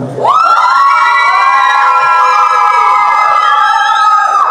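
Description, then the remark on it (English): A loud audience cheers and shouts in a sustained roar, with many voices holding long whooping yells that swell and blend together for several seconds without letting up. “If Kimber has blessed, encouraged, enriched your life in any way uh, in the last six months, can you get really loud?”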